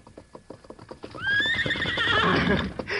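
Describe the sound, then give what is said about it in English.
A horse named Morning Star clops at a steady walking pace for about a second as he comes over to a boy, then a loud whinny rings out and carries on, wavering, until the end. “Look, Dad, he came right over to me.”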